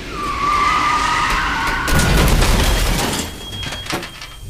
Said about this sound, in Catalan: Tenia 18 anys i un dia tornant cap a casa de l'institut, l'autobús en què anava va tenir un accident amb un tramvia.